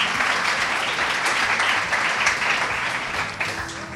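A crowd applauds steadily for several seconds, a dense, even wash of clapping that stays loud throughout with no voices standing out.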